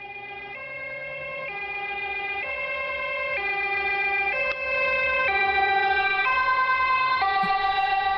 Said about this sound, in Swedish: Vad är det där? Ja, det är nog en... Eh, en, en ambulans.